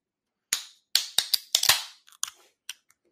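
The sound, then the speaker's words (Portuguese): The cap of a Carlsberg Pilsner beer bottle is pried open right at the microphone: a quick series of sharp metallic clicks and snaps, fading to a few softer ticks. No one speaks. “Tem que ser o barulhinho no microfone.”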